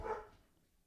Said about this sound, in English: Uh oh, dogs are barking.